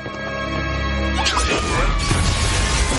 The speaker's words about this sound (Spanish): Bellatrix camina sobre una mesa del comedor destrozando la vajilla.